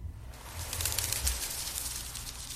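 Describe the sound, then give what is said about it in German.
A short bird sound effect: a steady, fluttering, airy rush with a low murmuring undertone, moderately loud, lasting a couple of seconds with no talking. “ich habe so Geschichten gehört von, von so äh, von so Tieren so mit Flügeln”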